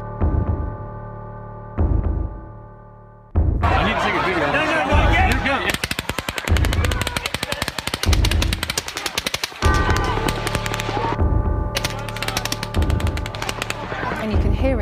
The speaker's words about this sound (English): there sustained automatic gunfire at the concert. People were running for cover or crouching down to try to avoid being hit. Some eyewitnesses are saying the shooting came from an upper floor of the Mandalay Bay Hotel.